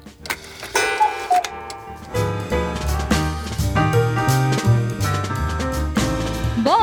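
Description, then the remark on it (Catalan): A steady clock tick-tock counts toward eight o'clock in the morning, running through a full, bright musical backdrop, the ticking fairly prominent, with sustained tones and chimes layered over it and no voices. “l'equip del programa es reunia al rebador a esperar que el rellotge toqués les 8”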